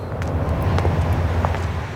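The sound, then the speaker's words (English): Steady low traffic rumble with a broad wash of road noise as cars pass on the Vigrid Highway in the video game Bayonetta, holding at an even, fairly loud level throughout with a few faint higher clicks. “And Bayonetta's walking along as cars go past.”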